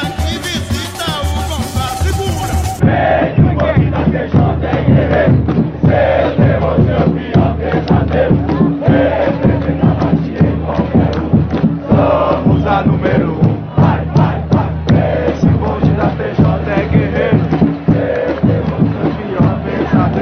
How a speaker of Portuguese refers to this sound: Isso, vamos falar da, da jovem, é, torcida, a principal torcida do Santos, né? Desde 1969. Então vamos ouvir.